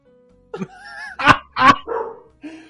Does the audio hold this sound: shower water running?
no